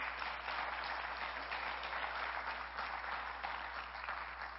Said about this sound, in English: I'd love to invite uh, my wife to come join me up here. Would you give her a round of applause as she makes her way up front?